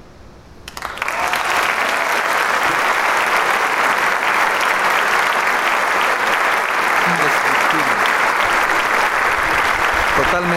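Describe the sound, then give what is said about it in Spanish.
A concert audience applauds a young virtuoso maestro, bursting into applause after a brief quiet moment; the dense, steady clapping stays loud and unbroken right to the end. “Solo el aplauso nos puede dar una idea.”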